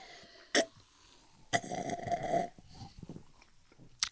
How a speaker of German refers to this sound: Alter, du bist ein richtig lauter Trinker. Also wenn du Alkohol trinkst, hört die ganze Bar, dass du da bist.